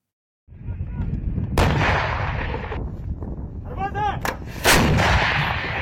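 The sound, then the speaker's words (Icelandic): Heavy artillery booms and explosions rumble continuously as Russian forces shell the front line in Donetsk, eastern Ukraine, with sharp blasts cutting through a dense low roar; a brief whistling sound rises midway before another loud impact. “Rússar hafi í dag varpað sprengjum ánar alla výlinuna í Donetsk hér að í östur Úkrænu.”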